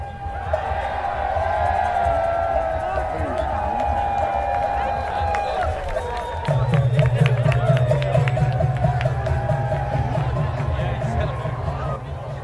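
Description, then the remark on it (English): A dense crowd of revelers, tourists and many nationalities at Stonehenge at 1.30 on summer solstice night, under a clear starry sky, fills the air with overlapping voices and occasional shouts, with sustained tones weaving through. Partway through, a steady low drone joins the constant hubbub. “Inside, it's a crush of nationalities, revelers, tourists,”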